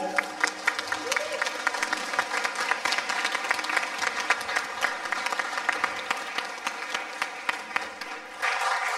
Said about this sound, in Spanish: Un aplauso para él.